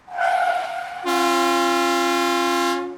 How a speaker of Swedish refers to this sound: De gick långsamt över gatan, så långsamt att en buss bromsade in och tutade.